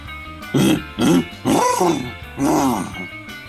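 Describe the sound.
A man's voice imitates a hippopotamus with four deep, throaty grunting bellows in quick succession, each a short rough burst with brief pauses between, fairly loud.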